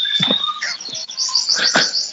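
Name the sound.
birds chirping loudly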